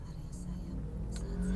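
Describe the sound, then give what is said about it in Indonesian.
Steady low rumble from inside a car crawling through a stop-and-go traffic jam near the Samsat vehicle registration office, after 20 minutes of driving, the engine hum constant and fairly quiet, with a faint voice murmuring in the background. “coba kita wow ini udah 20 menit dan saya masih baru nyampe Samsat dan ini juga macet”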